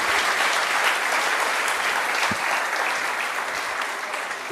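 Steady conference audience applause thanking two speakers, a dense wash of many hands clapping at an even, loud level for several seconds with no voices standing out, easing off only slightly toward the end.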